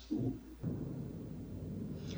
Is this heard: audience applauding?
no